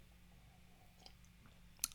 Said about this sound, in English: A little sip of whiskey. A little whiskey in the afternoon.